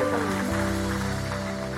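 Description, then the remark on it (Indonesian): An audience claps together for God in a dense, steady wash of applause, with sustained low musical tones holding underneath throughout. “Kita kasih tepuk tangan yang paling meriah buat Tuhan”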